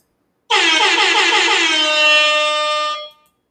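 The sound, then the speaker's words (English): A single loud air horn blast, sustained and brassy for about two and a half seconds with a slightly wavering start, then cutting off abruptly. No voices over it. “I finally found the air horn noise that we've been searching for.”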